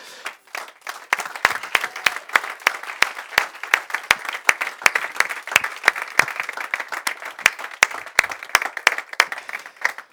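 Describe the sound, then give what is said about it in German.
An audience applauding Jesus steadily, dense clapping from many hands with sharp individual claps standing out in a quick, uneven rhythm, sustained for about ten seconds with no talking. “Geben wir mal Jesus einen gescheiten Applaus.”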